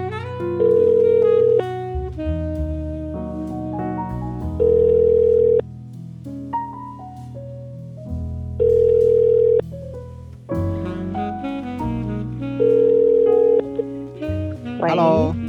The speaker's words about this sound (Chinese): 现在我打电话给这位好朋友。